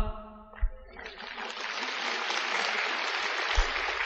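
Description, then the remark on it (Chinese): An audience at a Buddhist dharma talk breaks into steady applause after a brief bit of voice, the clapping swelling into a dense, even patter that keeps going at a moderate level without dying down. “鼓掌不够响。”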